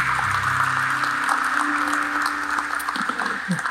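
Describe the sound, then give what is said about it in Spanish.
An audience claps steadily in a dense, continuous wash of applause for the Lord during a church service, with a few voices and a low tone sounding underneath throughout. “Vamos a darle el aplauso al Señor.”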